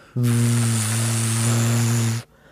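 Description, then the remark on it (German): A person imitates a bumblebee with a low, steady buzzing drone, held for about two seconds, mixed with breathy hiss and then cut off abruptly. “Hummel. Wie sieht Hummel aus? Und wie macht der? Hummel macht so”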